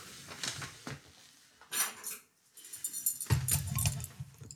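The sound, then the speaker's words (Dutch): Two interlocking metal puzzle pieces clink and scrape together as they are handled and worked apart, in irregular bursts of bright rattling with a short pause midway and no talking. “Want zeg maar, dit zijn dus twee metalen stukken wat zeg maar in elkaar zit en je moet het gewoon uithalen.”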